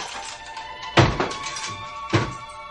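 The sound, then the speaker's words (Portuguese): A heavy metal jail cell door is closed again by a jailer, slamming shut with two solid clanks about a second apart, each leaving a brief metallic ring, fairly loud with no voices. “Abra a cela, carcereiro! Sim, seu doutor. Hum. Agora feche novamente a porta.”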